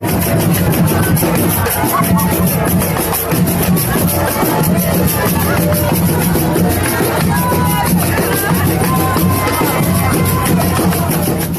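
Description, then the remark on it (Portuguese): A loud crowd of supporters celebrating in the street at Rua da Cachaça in a historic town centre shouts and cheers amid music and drums, in heavy rain with lightning and thunder, many voices merging into a dense, unbroken roar that holds steady for the whole stretch without pauses. “Além dos gritos, música e tambores.”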